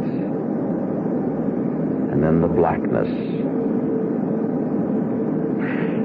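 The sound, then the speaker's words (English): A steady, low airplane engine drone fills the cabin throughout, loud and unbroken, with a man speaking briefly over it partway through. “That's why I know I am dead and why I am on this plane.”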